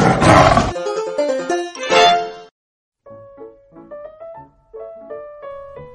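A loud, rough tiger roar bursts out at the start and fades after about a second, followed by a short, bright melodic jingle of plucked, chiming notes, opening a program produced by Huxiu (虎嗅网) and Ximalaya.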